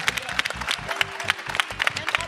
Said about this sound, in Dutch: Geef ze een applaus. Dankjewel.